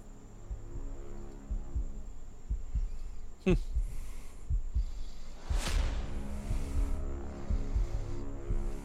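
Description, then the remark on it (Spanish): A low, steady heartbeat thumps under a droning hum, building suspense, with a couple of sharp whooshing swells cutting through midway. “se escucha tu respiración. Los palpitantes”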